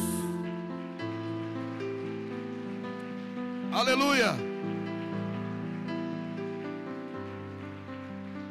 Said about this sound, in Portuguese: Dê o um aplauso mais lindo da noite para Jesus.